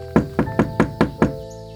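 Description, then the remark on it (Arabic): Five sharp knocks by a hungry hyena on the door of the goat's house, in a steady, evenly spaced rhythm, fairly loud, with a faint steady background tone and no voices. “في نهار اجا ضبع جوعان عم بفتش على أكل فلقى على طريقه بيت العنزة العنوزية وشاف العنزة طالعة من البيت وتاركة ولادها وحدهم وبس شاف إنه العنزة فلت قرب على بيتها دق الباب”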